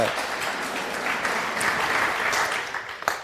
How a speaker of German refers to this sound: Ich äh gebt ruhig Applaus.